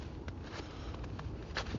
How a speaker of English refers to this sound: I'm just walking through the snow in the woods near my home along Salt Creek.